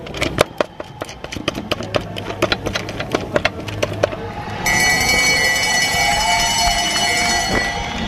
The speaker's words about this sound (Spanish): La campana marca el inicio de la última vuelta, los últimos 250 metros en los que se define todo, una medalla, un récord, una proeza que inspire. Sin importar la prueba o la categoría, la campana siempre suena anunciando el final.